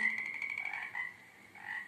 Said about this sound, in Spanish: En esa laguna vive una familia de sapos. Una familia numerosa, son 43 sapos.